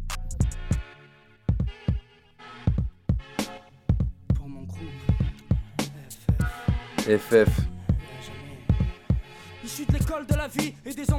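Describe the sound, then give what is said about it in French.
A rap track, one of the songs that inspired the interviewed artist to make music, plays with a steady booming kick drum and crisp hi-hats driving a rhythmic vocal delivery over a thick, bass-heavy beat, loud throughout. “Il euh, y a plusieurs, euh, plusieurs sons qui t'ont inspiré justement à, faire de la musique.”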